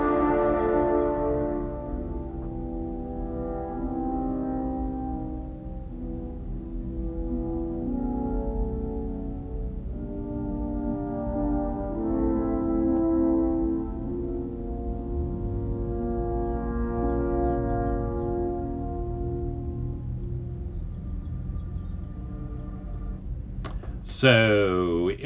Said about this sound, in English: If any of you guessed that it was from The Lord of the Rings, you would be on the right track. And if you knew it was from The Two Towers, you would be on the right track.